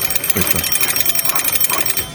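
A hand-cranked landline telephone rings with a rapid, steady metallic rattle of bell strikes that holds at a fairly loud level throughout, as its crank is turned to send an electric charge that makes the other telephone ring, with some faint low murmuring underneath.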